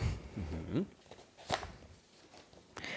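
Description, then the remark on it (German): Pages of printed political party programmes being flipped to find a section, with two crisp rustling swishes about a second apart after a brief murmur of voice at the start. “Äh, liebe Hörer, wenn Sie mir da immer blättern hört, also ich habe die Parteiprogramme vor mir liegen und muss dann immer da hinblättern, wo ich hin will.”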